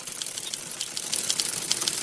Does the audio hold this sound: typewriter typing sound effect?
yes